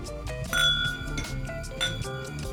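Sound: glasses clinking together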